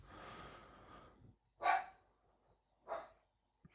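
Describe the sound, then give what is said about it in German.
A small pet dog makes odd snuffling, snorting noises, followed by two short, sharp yelp-like bursts with pauses between them, and no one talking. “Ich weiß jetzt gerade nicht, warum mein Hundchen komische Geräusche macht.”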